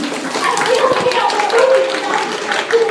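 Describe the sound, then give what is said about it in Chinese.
At a third-anniversary event, an audience claps steadily for about three seconds as a guest is formally introduced. The clapping is a dense, crackling wash of many hands, with voices calling and chattering over it throughout. “好，隆重介绍，好，大家先鼓掌。”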